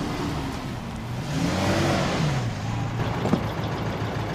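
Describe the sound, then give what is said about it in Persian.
A car engine hums steadily while driving, with a low rumble and a rising then falling tonal whine as the vehicle shifts speed; no one speaks. “دیگه ماشین تو حرکت حرکته که دیگه نباید در باز کنی بری خطرناکیه”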